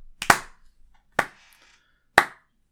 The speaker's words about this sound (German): Und da muss man nochmal die Bahn loben. Einfach mal. Drei Klatscher.